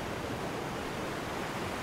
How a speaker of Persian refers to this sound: باران نمی بارید اما آسمان ابری بود موجهای دریا از سر و کول یکدیگر بالا رفته و به ساحل میریختند